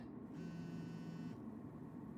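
A mobile phone vibrates with an incoming call: one steady, droning buzz lasting about a second, clear, then cutting off abruptly, with no voices.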